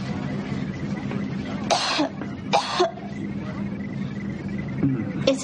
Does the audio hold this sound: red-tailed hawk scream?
no